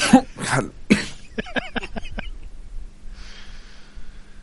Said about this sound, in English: But yeah, hang on a second. He's got a cough.